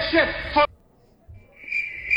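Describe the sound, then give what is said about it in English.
After a short loud burst and a moment of near silence, a steady high-pitched cricket trill sound effect fades in and continues to the end, clear, with no talking. “There it is. The opposite yeah. of crickets.”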